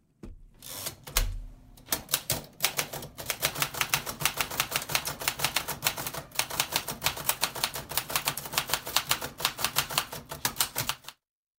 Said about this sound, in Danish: Ja, sådan lyder det på en øh, 1940-skrivemaskine. Øh, det, det lyder lidt tungt her,